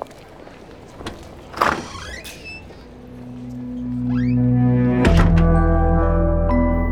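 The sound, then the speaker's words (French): A solid latch thunk, then a door creaks open with a couple of rising hinge squeaks, as a low sustained drone swells underneath. It is the door of Picasso's studio at 7 rue des Grands Augustins, where he painted Guernica, being pushed open. “Françoise pousse la porte de cet atelier mythique où Picasso a imaginé son célèbre Guernica.”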